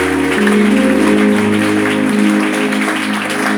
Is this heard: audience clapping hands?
yes